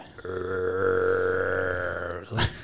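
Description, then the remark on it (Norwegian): A single deep, sustained growling roar made by a human voice imitating a bear's roar, held for about two seconds, ending in a short breathy burst. “Og så begynner jeg å høre eh, bjørn brøle, da.”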